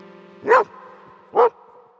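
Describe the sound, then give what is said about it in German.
A dog barks twice, two short sharp woofs about a second apart, clear against a faint steady background hum. “Namentlich geben dies die Hunde durch das Bellen zu erkennen.”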